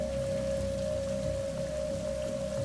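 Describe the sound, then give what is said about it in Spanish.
Heavy rain pours down in a dense, unbroken hiss at a steady loudness, with a faint constant hum running underneath and no voices. “Llovía intensamente, por lo que no podíamos ver bien”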